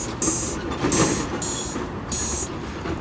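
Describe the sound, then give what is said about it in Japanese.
Loud, steady city street noise in Namba, Osaka, Japan: a dense rumbling wash of traffic with repeated bright, hissing squeals rising above it every second or so, with no one talking. “今は大阪は難波に来ておりますあ今さっき高速バス降りたばっかりでぐったぐたですよ頑張っていきますよろしくお願いします街のノイズがうるさい”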